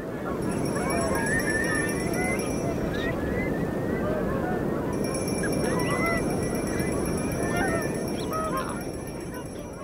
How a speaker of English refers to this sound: all this wonderful wind and waves and bird sound and very little human sound